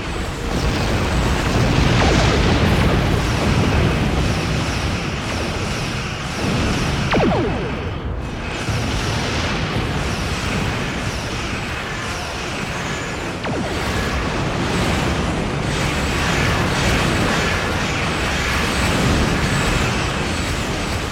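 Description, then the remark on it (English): Video game space combat between ships: a dense, loud, continuous rumble with repeated booming explosions and sharp blasts cutting through, no one speaking. “They're very good explosions.”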